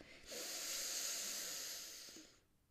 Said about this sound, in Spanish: Respirar por la nariz, inhalar por la nariz de manera consciente, que es de manera consciente, prestando atención a ese acto.